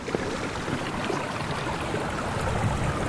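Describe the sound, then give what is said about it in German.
Shallow water in small arms of a river partly held back by a power plant dam rushes steadily over stones, a continuous babbling and hissing wash with no pauses or voices. “Wir springen über Steine, überqueren von der Natur geformte Wasserbecken und haben offene Ohren für die verschiedenen Stimmen des Wassers.”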